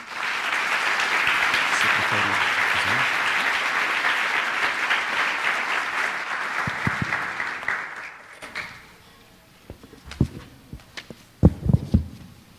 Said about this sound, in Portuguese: Eu gostaria de receber, com uma salva de palmas, o professor Laurentino Gomes.